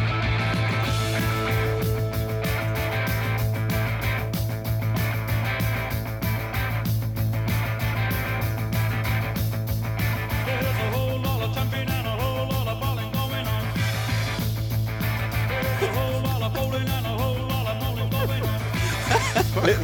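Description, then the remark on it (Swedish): A full-band rock song recording fades in and plays at a steady, fairly loud level with a heavy bass line and dense guitars, continuing without pause and with no one talking over it. “Den fejdar in.”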